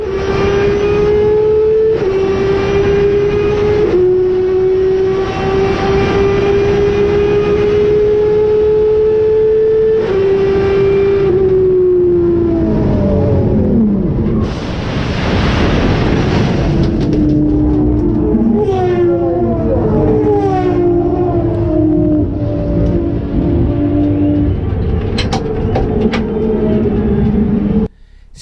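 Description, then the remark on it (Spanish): Loud, high-pitched engines of race cars scream past one after another on the main straight after leaving the hairpin, their whining tones dropping in pitch as each car goes by, with a burst of rushing roar in the middle of the sequence. “lo que impresiona también el paso de los autos que no han tenido inconveniente”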